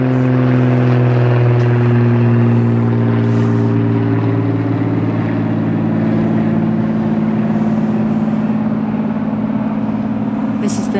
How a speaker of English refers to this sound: So the, the vintage planes are out. Yeah, I think, I think that's an old World War II warplane that somebody like some hobbyist billionaire is flying around the Welsh mountains, you know.